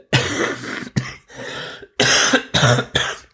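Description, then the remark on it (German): A harsh coughing fit: several raspy coughs in quick succession, broken by brief pauses and a throaty, strained burst toward the end, with no talking. “Gott, oh, er hustet nicht so lange spreche und nicht huste, sitzt der Husten immer so richtig fest, tut mir leid.”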